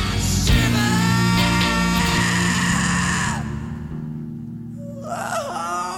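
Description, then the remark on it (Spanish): A singer lets out a long, strained, high scream over loud live band music during a studio performance before an audience, holding the cry for a few seconds before it breaks off, followed by a shorter wailing burst. “Incluso este grito”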